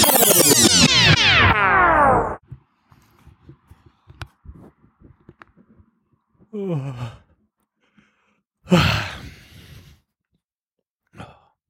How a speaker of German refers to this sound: Ich muss erst mal gähnen bin aber auch fix und alle.